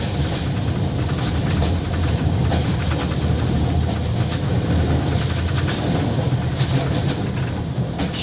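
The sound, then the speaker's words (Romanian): A steady, loud rumble of a train carriage in motion on a train in Romania, with exterior rattling, faint clickety-clack and occasional interior creaks over continuous low-frequency noise; no one speaks. “Îmi place la trenul din România care are zgomot de exterior și scârții de interior.”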